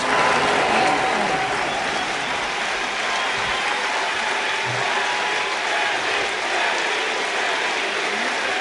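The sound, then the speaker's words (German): Dense, steady applause and crowd noise from a Berlin crowd cheering Willy Brandt fill the whole stretch, a continuous loud wash of clapping with a few raised cheers, and no clear speech over it. “Ein Wort, ein Name, ein Jubel.”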